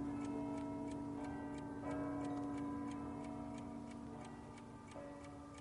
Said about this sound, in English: I waited, and I listened hard. A distant clock struck what sounded to me like eight. Soon another clock began on a loud, decisive note.